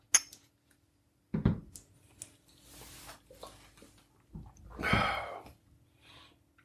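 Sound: glasses clinking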